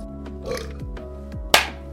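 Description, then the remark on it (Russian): Liquid glugs out of a bottle into a glass in a few low, gurgling bursts, ending in a brief bright splash, fairly quiet with no one talking. “Это вот звук наливания.”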